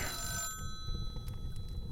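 A telephone rings with a bright, bell-like electronic tone lasting about half a second, then stops, leaving a steady low rumble of background noise.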